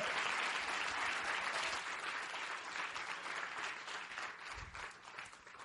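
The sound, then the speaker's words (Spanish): An audience in Medellín applauds steadily for the whole stretch, a dense wash of many hands clapping that stays loud and then eases slightly toward the end. No one speaks over it. “Un aplauso, por favor, gigante para él.”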